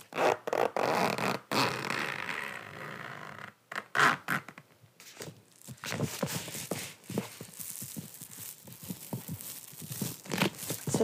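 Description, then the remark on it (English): The zipper of a large waterproof bag with a small metal pull is pulled open and shut in several quick, rasping strokes, fairly loud, followed by a longer stretch of scratchy zipping and handling noise. “Has a nice little metal little icon here. Makes it easier to zip open and closed.”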